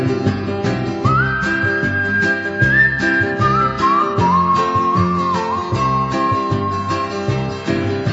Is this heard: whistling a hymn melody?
yes